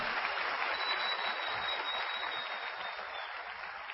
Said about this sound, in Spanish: Esta convención, muchachos, tiene que ser la convención más chiquita que hayamos tenido en Guadalajara. ¿Qué les parece eso? Vamos a dar un aplauso para eso, muchachos, para ponernos las pilas y en la próxima convención